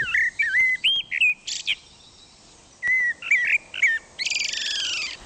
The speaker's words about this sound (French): Alors, il y a aussi le merle. Alors le merle, il est tellement commun et insignifiant comme ça, alors qu'en fait, pour l'oreille, c'est la régalade.